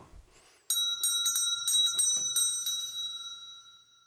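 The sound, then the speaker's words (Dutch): A small bell rings with rapid repeated strikes from about 0.7 seconds on, its bright metallic tone sustaining and slowly fading, fairly loud with no voices. “Mijn kaart en Bart's bel, daar zit een duidelijk verband.”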